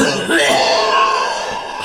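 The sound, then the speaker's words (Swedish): A harsh, rasping cough fills nearly two seconds, loud, with a rough, throaty texture and no words spoken. “kom en sån här fruktansvärd jävla hosta.”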